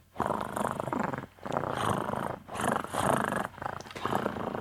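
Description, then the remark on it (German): A cat purrs very loudly, a deep rattling, motor-like rumble rising and falling in about five long surges with brief pauses between, no voices present. “Ich glaube, deine Katze hat einen Rasenmäher verschluckt.”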